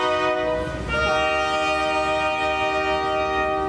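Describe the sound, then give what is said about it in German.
A new SBB passenger train, presented at a station's inauguration celebration and not yet in service, blares its horn in a steady, multi-tone chord for nearly four seconds. It is loud, with a low rumbling background underneath and no voices. “zur Feier des Tages hat die SBB auch noch gerade ihren neuen Zug vorgestellt.”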